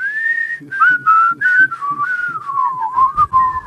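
A bright, cheerful melody whistled clearly up close, the tune gliding smoothly between notes over a soft, steady rhythmic backing that pulses underneath throughout.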